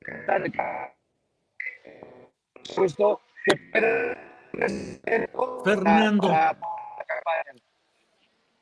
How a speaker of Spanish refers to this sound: se escucha con mucha interferencia, sí, pero, pero seguimos adelante, seguimos